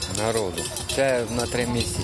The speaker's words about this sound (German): Wir sind hier in den Bergen. Kurz bevor der Wald sich lichtet, hört man Glocken von Kühen. Etwa 20, zumeist dunkelbraune Tiere fressen sich satt